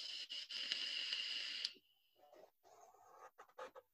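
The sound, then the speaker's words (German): A steady, breathy hiss from an e-cigarette being vaped, loud for about a second and a half, then cutting off to quieter scattered rustles and soft clicks. “man hört die Dampfe. Die Dampfe läuft.”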